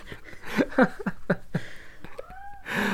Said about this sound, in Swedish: Nu vaknade min katt här i bakgrunden ifall ni hörde det. Han hörde väl ordet penis och så var han tvungen ja. att tvätta sig lite.